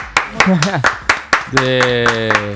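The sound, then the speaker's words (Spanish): Steady hand clapping, about ten sharp claps at an even beat, loud over a gliding vocal sound early on and then a sustained buzzing tone that holds through the final claps. “Aplaudan, viejo, aplaudan.”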